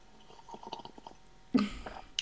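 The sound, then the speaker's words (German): A wet sip of coffee from a cup: a few soft mouth noises, then one loud, brief slurp, followed by a small click at the very end. No one speaks. “Ich muss jetzt mal ganz unverschämt sein und kurz an meinem Kaffee nippen, weil er steht hier gerade so vor mir.”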